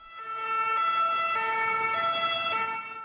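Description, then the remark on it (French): The siren of a French SAMU emergency medical service ambulance wails loudly, its two-tone pitch switching back and forth in a steady rhythm before easing off at the end, as ambulances queue in front of a hospital ward's building to bring in Covid patients in March 2020. No one speaks. “Les camions du SAMU font la queue devant notre bâtiment pour nous laisser les patients.”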